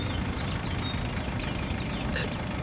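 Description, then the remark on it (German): A car engine idles with a steady, continuous low rumble that holds at an even level throughout, with a few faint high chirps in the background. “Der Wagen vom Boss?”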